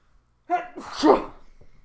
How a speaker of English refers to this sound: bless you.